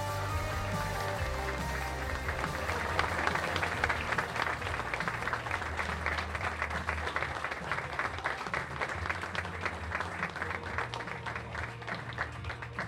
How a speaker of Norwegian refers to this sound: Gi en stor applaus til Mats Bøyum og Anders Bami.